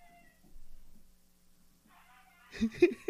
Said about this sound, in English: Oh shit, the puppies are screaming right now. puppies are awake. Yeah, we still have the puppies over here, by the way.